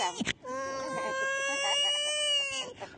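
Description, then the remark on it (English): A man's voice imitates a crying baby, as done for voiceover work, with one long, sustained wail, high and strained with a slight waver, loud and steady for over two seconds before breaking off. “Okay, so I do crying babies.”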